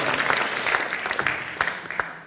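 audience applause

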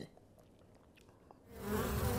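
buzzing bee sound effect

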